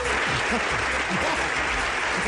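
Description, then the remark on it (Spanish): An audience claps steadily, a dense wash of many hands that stays at an even loudness for about two seconds, with faint voices mixed underneath. “Ese man merece un aplauso.”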